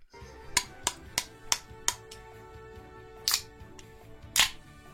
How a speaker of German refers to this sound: Ja, ihr habt gehört, das charakteristische Klopfen auf die Büchse.